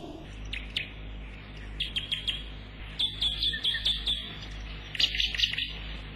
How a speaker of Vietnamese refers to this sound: con gà mái vàng dắt bầy con đi kiếm ăn mẹ đứng trên đống rác mà bươi con chạy xung quanh kêu chét chét